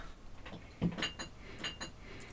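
Glasses clink together in a toast, a soft knock followed by two light, ringing chimes that fade quickly against a quiet background with no talking.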